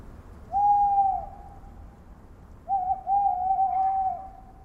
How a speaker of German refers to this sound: Und dann danach hören Sie im Vergleich dazu die Glocke. Die hat einen reinen hohen Klang, der ganz lange anhält. Und das liegt daran, dass sie gegossen ist.